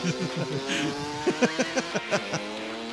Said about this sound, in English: It's a dirt bike on the just street. heard a goddamn motor.